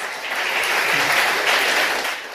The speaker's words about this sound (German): Des Weiteren noch mit auf dem Podium ist aus dem Deutschen Bundestag Frau Saskia Esken von der SPD. Applaus.